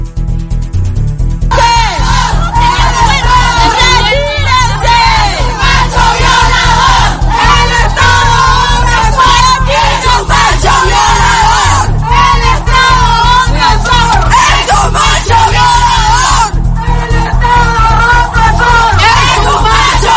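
A large crowd shouts and chants at a protest at the gates of the Centro Feminista La Corriente, voices overlapping in rhythmic bursts of yelling, with a steady low rumble underneath, energetic throughout.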